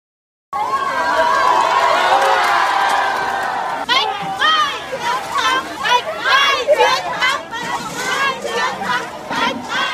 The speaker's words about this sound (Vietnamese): Vâng, thưa quý vị và các bạn, những tiếng hò reo, những cảm xúc nghẹn ngào của hàng trăm cán bộ y tế trong thời khắc được dỡ bỏ phong tỏa đã khiến khuôn viên bệnh viện Bạch Mai trở nên sôi động trở lại sau nhiều ngày tĩnh lặng trước đó.